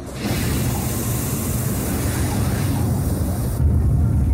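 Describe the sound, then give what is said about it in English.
The eight rocket engines of the Perseverance rover's jetpack fire during its descent to Mars on February 18, 2021, with a sudden, steady rumbling roar that stays loud and continuous, then swells even louder just before the end; no voices are heard. “and the jetpack's eight engines light up.”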